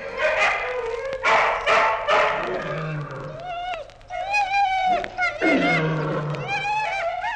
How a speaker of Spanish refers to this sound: De noche, en la oscuridad, de cien perros a la vez se oía el roer de los dientes, el gruñido de gusto, el ruido de las lenguas.